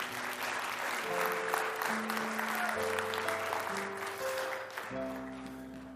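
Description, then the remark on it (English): A large audience claps for degree recipients in a dense, steady burst of applause lasting several seconds, with sustained musical chords playing underneath and shifting every second or two. “Let's give our degree recipients another round of applause.”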